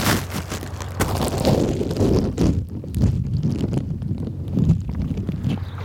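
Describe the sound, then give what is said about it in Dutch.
Underwater ambience recorded with a bagged microphone held under water in a river along the Rhine system: a dense, muffled low rumble with a faint steady hum, scattered with irregular soft clicks and knocks, moderately loud throughout with no voices. “Zo klinkt het onder water.”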